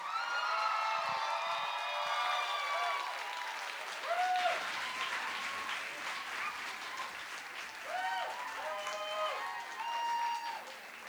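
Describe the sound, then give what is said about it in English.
Sustained applause from an audience welcoming a singer fills the whole stretch, dense steady clapping mixed with scattered whoops and cheers rising above it, staying loud throughout with no talking. “You guys give it up for ….”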